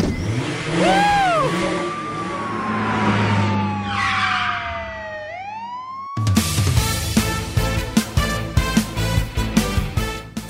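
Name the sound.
car driving away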